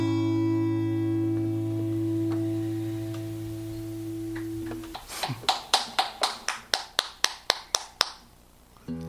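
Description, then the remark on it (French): A sustained musical tone rings out and stops, followed by sparse, thin applause: about a dozen sharp claps in a steady rhythm from just a few people. “Les applaudissements sont aussi dépouillés que tes chansons.”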